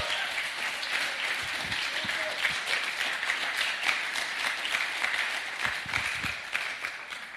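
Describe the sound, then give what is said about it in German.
An audience applauds steadily for several seconds, a dense, bright crackle of many hands clapping at an even loudness, with a few sharper individual claps poking through. “Ein Applaus für dich und dann geht's los.”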